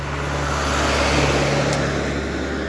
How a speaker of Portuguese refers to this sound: porra, que isto agora só carros a passar.